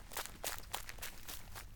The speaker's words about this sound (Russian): однажды я шла по улице, было темно, на улице не было ни души, то есть не было никого, и вдруг я услышала шаги. Кто-то шел за мной. Я подумала, ну и ничего страшного, это просто другой человек идет по улице. Но потом шаги ускорились.